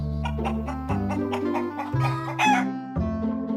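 Chickens cluck in quick bursts with a rooster-like crow mixed in, set over a steady musical backing with sustained low notes that shift about once a second.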